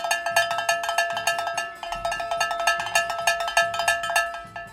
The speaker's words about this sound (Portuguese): Você tá gostando de tocar esse sino, né